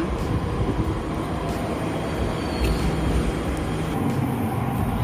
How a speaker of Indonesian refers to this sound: terus jadi gue kayak parno gue emang sempet sebulan pertama guys suara kereta tuh ya kan kereta kencana datang